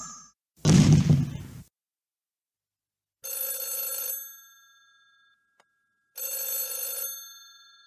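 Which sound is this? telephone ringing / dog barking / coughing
telephone ringing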